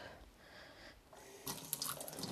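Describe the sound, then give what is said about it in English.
Water runs from a tap in a steady, hissing stream, turning brighter and splashier partway through as a hammer is rinsed under it, with no voices. “I gotta wash my hammer”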